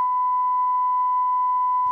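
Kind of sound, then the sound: signal or alarm, censor beep tone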